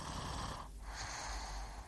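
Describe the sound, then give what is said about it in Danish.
A person lying asleep snores, a rough, rumbling breath that rises and dips briefly before continuing, with no talking. “det er der lyden af, der ligger og snorker og sover.”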